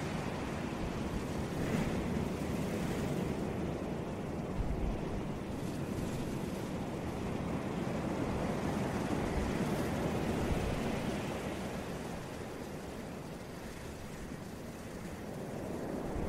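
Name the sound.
ocean waves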